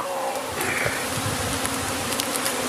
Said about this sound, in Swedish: För andra gången i rad skakar jag nu ner svärmen från precis samma gren. Återigen fylls plastbacken med en brusande hög bin. Måtte drottningen vara med den här gången.